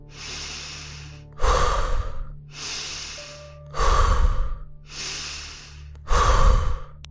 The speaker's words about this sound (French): Pour bien démarrer, nous allons chasser un tout petit peu nos pensées. Et pour ce faire, nous allons inspirer profondément et expirer fortement, assez rapidement, de cette manière, écoutez.